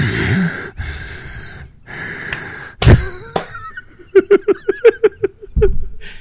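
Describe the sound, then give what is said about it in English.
A person mimics heavy, wheezing breathing: a few long raspy inhales and exhales, then a quick run of short, squeaky gasping wheezes, ending in a loud snort-like breath. “You know, like, yeah, like uh, watching the whole watching the whole show, like, like you're just breathing because you're so fat.”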